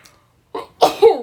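A sneeze: a short breathy intake, then two sharp explosive bursts in quick succession, the final one loud and voiced, with no talking around it.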